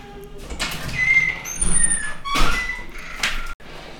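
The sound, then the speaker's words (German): A door opening as a colleague comes in, with a drawn-out creak and squeak, followed by rustling and knocking, and a final thunk as it shuts. No one speaks. “So, die Nebengeräusche hast du gehört. Kollegin kam rein.”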